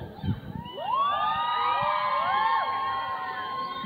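About 130 young students, many from Sayula, shouting and cheering together at a quarter to ten in the morning, a loud sustained roar of many overlapping voices rising in pitch, with a brief burst of noise just before it swells.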